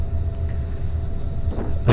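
A steady low engine drone and road rumble fill the cabin of a moving bus travelling from Hamburg to Bremen, with a faint high whine above it and a slight bump in loudness at the end. Nobody speaks.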